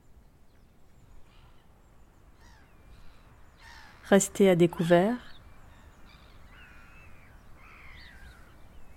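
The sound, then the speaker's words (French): Brent geese call faintly from sandy islets on an Atlantic tidal mudflat near high tide, scattered croaking notes across an open, breezy shoreline, with a man briefly speaking over them partway through. “des oies bernaches s'isolent du reste.”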